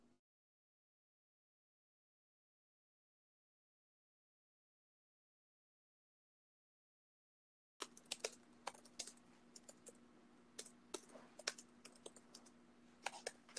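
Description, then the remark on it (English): Rapid, irregular keyboard clicks begin after a long silence, steady, as someone types messages to a stranger on Omegle, with a faint constant hum underneath and no voices. “Um, so we're, we're not, but we're typing to him.”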